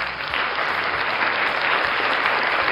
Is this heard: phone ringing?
no